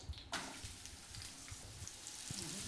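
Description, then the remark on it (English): A sudden burst of loud, steady sizzling as sliced onions hit a hot pan, a dense crackling hiss that continues without pause, unaccompanied by voices. “We've got all those sliced onions. In they go.”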